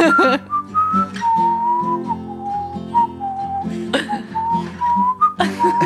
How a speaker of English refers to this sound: I just blew my one fucking whistle solo